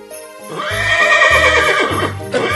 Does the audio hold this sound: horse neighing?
yes